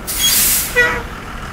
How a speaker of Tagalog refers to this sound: Mag-aalauna na ng madaling araw nang huminto ang bus sa istasyon nito sa Baguio.